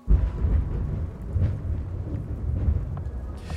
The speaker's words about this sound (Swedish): Men ni vet, om det åskar ute och du ser en blixt blixtra till. Då är det ganska ofta som du inte hör smällen direkt, alltså knallen ifrån åskan, eller hur? Utan den kommer först en liten stund senare.